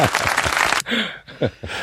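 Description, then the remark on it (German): A brief burst of applause sound effect played in as congratulations, dense and steady clapping for under a second, cuts off abruptly and gives way to a few short vocal sounds. “Applaus mit einspielen vom Sound.”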